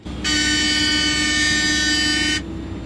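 A single loud, sustained snow groomer horn blast lasting about two seconds, bright and harmonic, over a low rumbling engine hum that continues before and after, as the driver eases off the throttle and honks at a skier who suddenly shoots out onto the slope.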